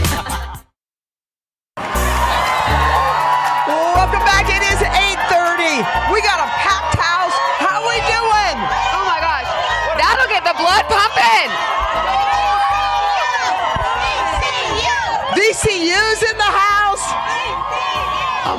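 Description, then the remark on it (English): A loud, dense crowd cheers and shouts continuously at a basketball game, with whoops and yells rising over a constant roar after a brief silent gap near the start. “God, this oh. crowd is lit.”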